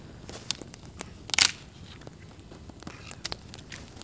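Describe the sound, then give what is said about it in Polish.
Firewood, some of it damp, is added to a campfire that is dying down: scattered small snaps and crackles, then a brief louder crunching clatter as wood lands, followed by more sporadic pops. No one speaks. “Ja dorzucę trochę drewna, bo znowu nam ogień tu przygasa.”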